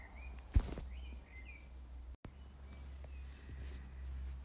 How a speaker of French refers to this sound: Je ne sais pas si vous entendez des oiseaux dehors